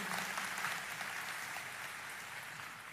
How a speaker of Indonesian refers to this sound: Ya setuju beri tepuk tangan yang meriah buat Tuhan.